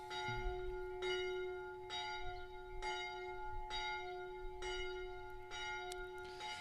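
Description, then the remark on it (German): A large bell tolls steadily, struck about once every second or so, each stroke ringing with rich, sustained overtones that hang between strikes, with no talking. “Ich fände es geil, wenn die jetzt eine Stunde läutet, muss ich ehrlich sagen.”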